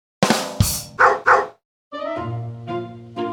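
A dog barks four times in quick, loud succession, then a short pause gives way to a longer, steady, tonal sound that holds for over a second. No one speaks.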